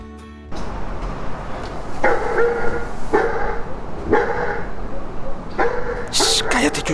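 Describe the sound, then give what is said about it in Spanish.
A dog inside a house in Guatemala barks about four or five times at an even pace, each bark short and loud, over a steady layer of hiss and background noise. “Cuando entró, se encontró un perro.”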